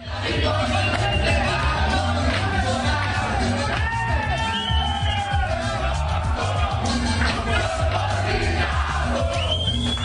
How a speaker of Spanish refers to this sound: Este es el sonido de la fiesta en Barranca después de la victoria de Alianza Petrolera 1-0 frente al Deportivo Paz. Camisetas en alto, eh, le pegaban a las paredes, a los muebles. Una celebración típica de un título.